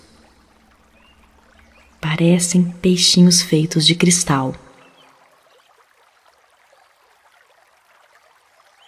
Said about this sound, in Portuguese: O som da água te leva cada vez mais para perto do templo. Parece que o balanço das águas embala seus sonhos.